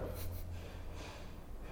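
Two short, breathy nasal bursts, a person snorting air out through the nose to demonstrate blowing it, with no talking.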